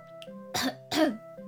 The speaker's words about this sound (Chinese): 绵羊清了清嗓子